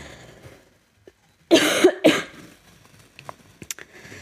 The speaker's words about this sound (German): Ach so, ich habe übrigens kein Corona, ich habe nur Husten.